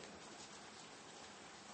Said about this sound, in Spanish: Y junto contigo yo estoy ubicándome también, estoy observando las gotas de lluvia, que más bien cayó un, aguacero.